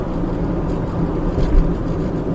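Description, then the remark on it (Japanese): A steady, low rumble of car tires rolling over pavement, continuous and fairly loud throughout, with no voices over it. “たださその、まあ、タイヤが転がってるこのゴロゴロいう音”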